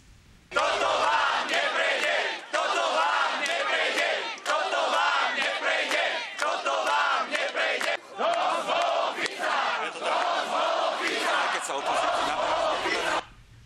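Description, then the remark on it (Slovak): Thousands of people at an opposition protest in front of the Government Office chant and shout in unison outdoors, a dense, loud roar of many voices rising in rhythmic bursts with brief dips, continuing steadily for about thirteen seconds. “V uliciach boli tisíce ľudí, predovšetkým pred úradom vlády na opozičnom proteste.”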